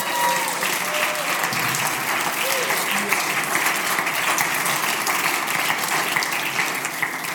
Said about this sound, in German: Geben ihm einen fetten Applaus.